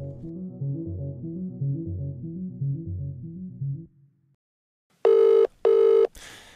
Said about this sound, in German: Dieses Freizeichen, hören Sie mal, ist ein bisschen anders als das bei uns. Das war heute Vormittag über Stunden das einzige, was aus Downing Street Number 10 zu hören war. Es ging einfach keiner mehr ans Telefon.